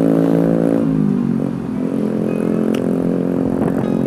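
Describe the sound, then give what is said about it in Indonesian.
A loud motorcycle engine roars in front of the speaker, its pitch dipping briefly then climbing again as it revs, steady and continuous throughout with no one talking. “ini motor berisik banget di depan gue”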